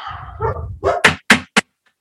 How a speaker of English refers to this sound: My dog hates Monday Night Raw, as you can hear. He absolutely despises it. If no one heard, my dog Chaos bark very loudly because he realizes how bad of a show this was last night.